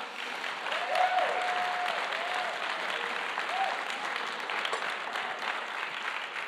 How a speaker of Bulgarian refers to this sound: И тия, които не пляскате на балкона, знам, че сигурно това по някакъв начин ви трови живота, но така или иначе закъсняхте за моята проповед, така че нека ви боли посланието.